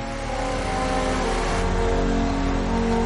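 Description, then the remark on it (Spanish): Firefighters start a small portable generator connected to a pneumatic cutting tool; its engine drones loud and steady with a constant buzzing hum throughout, no voices. “Los bomberos ponen en marcha un pequeño generador conectado a una tenaza neumática.”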